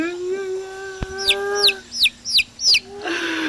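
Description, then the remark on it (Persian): A voice imitates a chick with five quick, high-pitched peeps in a steady rhythm, fairly loud, after a brief low hum and a soft knock. “میشه دوباره برام صدا در بیاری مثلا صدای صدای گاو یا مثلا صدای گوسفند یا مثلا صدای جوجه صدای جوجه”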